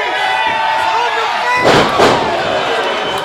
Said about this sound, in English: Huge slam into a cover.